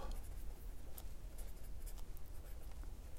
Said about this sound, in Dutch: Die schrijven we op.